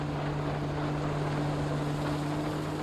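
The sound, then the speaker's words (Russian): The engine of a motorboat overtaking on the left (port) side roars in a steady, loud drone with a low humming pitch, mixed with rushing wind and water noise. No one speaks. “по левому борту ревет мотор обгоняющего нас катера.”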